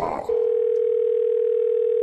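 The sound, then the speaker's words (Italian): After a brief burst of noise, a steady, single-pitched telephone tone sounds continuously and clearly over a line, the ringing tone of an outgoing call to an electrician. “Terza telefonata all'elettricista.”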